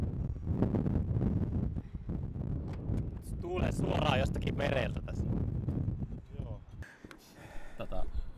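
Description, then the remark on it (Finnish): Strong wind buffets the microphone in a constant low, rumbling roar outdoors at the Ollihaa skatepark in Oulu, Finland, with voices faintly audible beneath the gusts. “Tuulee kuin perkele. Se on hyvä ääni.”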